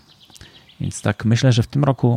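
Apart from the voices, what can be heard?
forest ambience with birds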